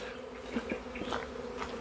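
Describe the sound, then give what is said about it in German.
A dense, steady buzzing of many wasps droning together around a huge wasp nest, with individual insects whirring louder as they pass, continuous with no voices. “Das sind Wespen. Und wir haben. Das ist ein riesen Wespennest. Hört ihr das Brummen?”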